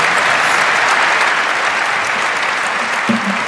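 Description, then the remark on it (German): Steady, sustained applause from a large audience, a dense wash of clapping at a constant loud level throughout, with a brief low murmur or voice rising near the end. “danke, da ist wieder so ein Applaus, mit dem habe ich auch gerechnet.”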